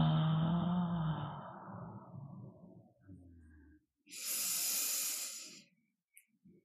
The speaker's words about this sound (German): Und ausatmen. Gib alles ab. Ist nicht deins.